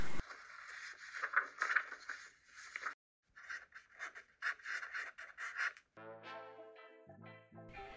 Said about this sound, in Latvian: Ok, tad mēs kā rīkosimies, mēs rakstīsim. No Jā, tevis kaut ko raksti kaut ko, man te papīrs kaut kur ir.